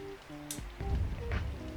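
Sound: raindrops falling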